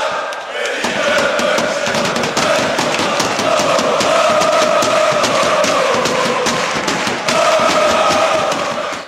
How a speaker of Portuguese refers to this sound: No ritmo aí do grito de torcida do Bayern de Munique